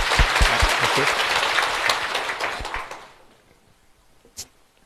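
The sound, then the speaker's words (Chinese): A crowd applauds with dense, steady clapping for about three seconds, welcoming writer Lin Qingxuan to speak on form and emptiness at a Fo Guang Shan lecture in Taiwan, then it fades quickly to near silence, broken by one last isolated clap. “我们掌声啊，欢迎谢谢。”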